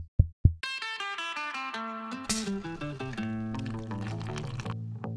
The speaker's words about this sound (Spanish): Ahí va el intro.